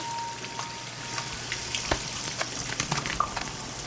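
Water gushes and spatters from a cracked aquarium in a living room in a steady hiss, with small irregular splashes and drips crackling on top, pooling on the floor with algae, silt and pebbles. No voices.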